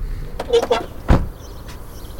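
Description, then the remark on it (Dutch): A few quick mechanical clicks as a car is parked, then a car door shuts with one solid thump as people get out, followed by quiet outdoor ambience. “Zullen we auto's even parkeren, even uitstappen?”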